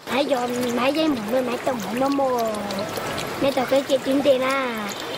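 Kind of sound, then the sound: crowd, children's voices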